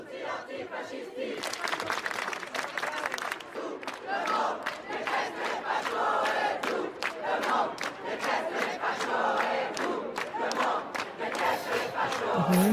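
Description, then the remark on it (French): A large crowd of students chanting slogans in unison outdoors in front of the Sorbonne university, which they are occupying in protest at the first-round result of the presidential election. The chanting is loud and sustained, with rhythmic shouted bursts and scattered cheering throughout. “Écoutez d'abord ce qu'ils disent, les slogans qu'ils déploient devant la Sorbonne.”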